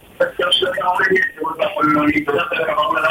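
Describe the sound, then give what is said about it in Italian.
A radio plays in the background over a narrow, muffled telephone line, its voices and sound running continuously and fairly loud for a few seconds. “Puoi abbassare la radio perché altrimenti non ti sentiamo.”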